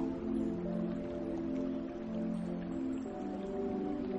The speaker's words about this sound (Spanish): Mientras tanto, escuchas cómo la tormenta se va acercando.